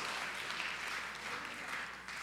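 Steady applause from a crowd during a sermon, a dense, continuous crackle of many hands clapping at an even loudness throughout, with no voices rising above it.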